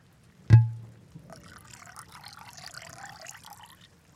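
A sharp clink of glass, then wine glugs and splashes steadily into a glass for about three seconds, fairly quiet, with no talking.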